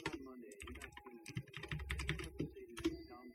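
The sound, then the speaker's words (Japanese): Quick bursts of keyboard typing, a run of clicky keystrokes in an uneven rhythm, with a faint murmur of a voice underneath, as a search for saxophones is typed into Yahoo Auctions. “今、あの、ヤフオクで、あの、サックスで検索してみます。”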